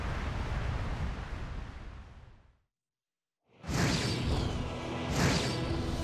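An earthquake rumble: a deep, noisy roar that fades into a second of silence, then surges back louder and harsher, swelling twice with no voices.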